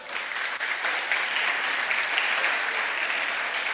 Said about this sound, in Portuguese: Pessoal, Mercado Solidário. Vamos dar uma salva de palmas para o Mercado Solidário.